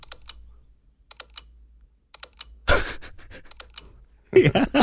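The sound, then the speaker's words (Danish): A smartphone camera shutter, reproducing a Hasselblad shutter sound, clicks in quick, sharp clusters of two or three, crisp, with bursts of breathy laughter or noise breaking in partway through and again at the end. “Det er sådan en meget specifik lukkerlyd, som øh, Hasselblad de laver.”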